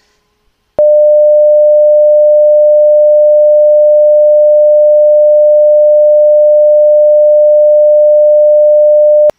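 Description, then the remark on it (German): A loud, steady censor bleep, a single pure beep tone held unbroken for about eight and a half seconds after a brief silence, with no voices. “Meinst du, wir müssen was piepen?”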